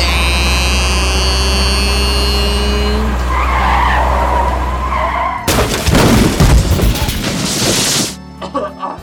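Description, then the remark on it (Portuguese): A bus engine sound effect, for a ride to Avintes in Vila Nova de Gaia, Portugal, hums steadily with a whining tone, then a loud rushing, skidding roar takes over for a few seconds before cutting off abruptly. No one speaks. “Por isso mesmo, vamos de autocarro.”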